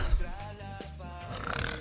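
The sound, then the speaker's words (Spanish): A voice imitates drawn-out, throaty moaning, as if having an orgasm while asleep instead of snoring: a continuous low groan with a gravelly, snore-like texture lasting about two seconds, at moderate volume. “¿Cómo es tener un orgasmo durmiendo? Es como que, en vez de roncar, es ¿cómo está?”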